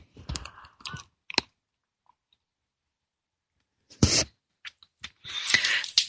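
Quiet handling clicks and a short pause, then a sharp slurping intake and a longer, breathy sip of hot tea. No one speaks.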